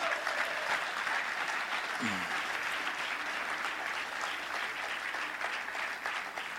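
Steady applause from an audience in a hall for the technical crew who work in the building, a dense wash of clapping that holds at an even level for several seconds, with a brief low vocal sound surfacing once in the middle.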